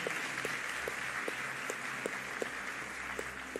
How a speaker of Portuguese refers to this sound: Igreja, dê uma salva de palmas enquanto esses irmãos são recebidos.